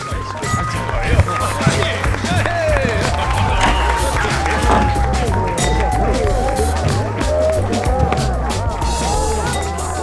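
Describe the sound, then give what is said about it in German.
A dense crowd celebrating on election day fills the space with overlapping cheerful chatter and cheering voices, scattered claps, popping corks and shouts rising over a steady low rumble, sustained and lively throughout. “Durch die Tür drang das heitere Stimmengewirr der feiernden Massen. Korken knallten, Hände klatschten und befreites Aufatmen traf auf Jubel.”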